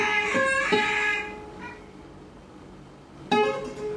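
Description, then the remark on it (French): A cat meows in a quick pair of drawn-out, tonal cries, falls quiet for a couple of seconds, then lets out one more sharp meow. No one speaks. “Ah, et puis un chat aussi.”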